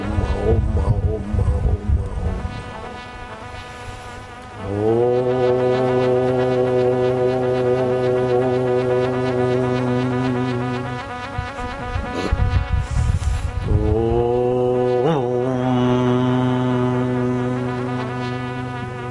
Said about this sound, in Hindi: जहाँ तिलक करते हैं वहाँ गुरु जी को भगवान को या ओमकार को देखे पंद्रह बीस मिनट रोज ऐसा गुंजन करे